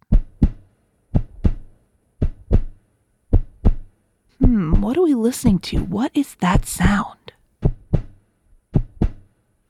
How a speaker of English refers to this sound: A heartbeat. That's a heartbeat.